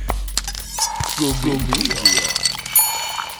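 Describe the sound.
Bright glassy clinks and tinkles ring out as four ice cubes knock against the sides of a glass with a slice of lemon, with a voice talking over the sounds.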